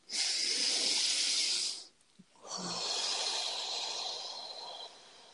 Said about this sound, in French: Alors on va faire ensemble une respiration et dire des affirmations.